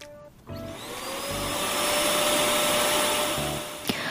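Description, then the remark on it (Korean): A vacuum cleaner roars to life after a brief pause and runs steadily at full power, a loud whine with a strong motor hum, ending with a short click near the end. “이렇게 쌩쌩하게 작동을 해야 청소할 맛이 나는데”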